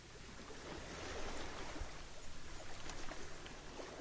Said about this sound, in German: Jetzt lasse ich dich noch etwas am Meer